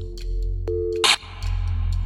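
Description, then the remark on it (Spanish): A steady electronic tone of an outgoing call on a desk phone hums briefly before a sharp click and burst of noise cuts it off as the phone is accidentally unplugged by a foot, leaving a low line hiss with faint clicks. “Por un momento el timbre sonó, pero de repente se cortó.”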